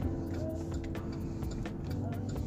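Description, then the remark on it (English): A steady, low engine rumble fills the inside of a car idling at a red light, with a constant hum and a few faint clicks and shifts over the drone. “well, I've just approached a red light, and so far nobody's looking at me, uh, figuring out why I'm talking and smiling while I'm driving my car.”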